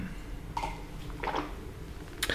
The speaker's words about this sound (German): Oh, ah, ein Schluck Wasser.